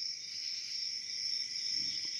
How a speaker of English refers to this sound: Got the crickets there, do you? Yeah, I found some crickets here. That's the, the, male cricket's trying to get him a girlfriend by chirping.